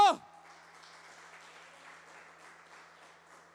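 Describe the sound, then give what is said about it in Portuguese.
A church audience applauds Jesus in a steady wash of clapping after a brief loud burst at the start, the crowd noise sustained and moderately loud with a faint murmur of voices underneath. “Aplauda Jesus bem alto!”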